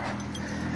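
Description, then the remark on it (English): A puppy whimpers and cries outdoors, out in the back, in a brief, steady, fairly loud burst of whiny sound lasting under a second, with no talking over it. “If you hear that dog, that's my dog in the back.”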